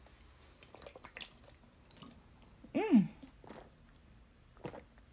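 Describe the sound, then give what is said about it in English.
Quiet wet mouth sounds and small slurps of someone sipping nice cold water on a hot day, followed by a satisfied hum from a voice and a few soft clicks. “Y'all, it's a blessing to be able to have water. Nice cold water on a hot day.”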